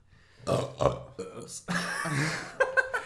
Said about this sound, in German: Stereo, Stereo Rülpser, Alter.